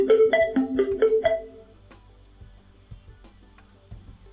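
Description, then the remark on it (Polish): A Bluetooth speaker's power-on chime as it is switched back on after being turned off: a quick run of bright, bouncing electronic tones lasting just over a second, loud and melodic, then fading into faint background hum and small clicks. “Głośnik się włączył, o czym zostaliśmy poinformowani sygnałem dźwiękowym.”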